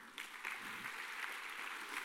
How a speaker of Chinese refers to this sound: 好，来给各位一个掌声哦。